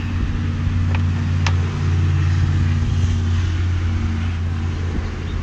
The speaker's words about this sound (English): Sounds like the train's gonna go by here in a minute. You hear that train back out there? Oh yeah, man. Train's going through.